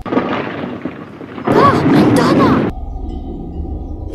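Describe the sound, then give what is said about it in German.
Low, heavy rumbling like thunder rolls through, swelling into a louder, brighter burst mid-way with a tonal, warbling quality, then settling back into a deep, steady rumble. “Hast du den Donner gehört?”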